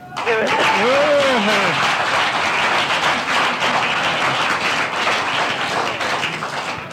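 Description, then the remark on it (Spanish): A crowd applauds loudly and steadily for several seconds, dense clapping, with a brief raised voice or cheer near the start, applauding a woman who has won a trip to Australia. “que ya llevamos aquí hablando contigo 10 minutos y te hemos dado un aplauso y te vamos a dar otro?”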